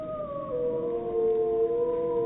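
A recording of two wolves: long, sustained howls glide slowly downward, the two voices overlapping at different pitches in a steady chorus. The sound is clear and moderately loud, with no talking.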